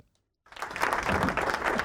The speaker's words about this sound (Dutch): Oh, dankjewel. een applaus voor u. Ja, welkom.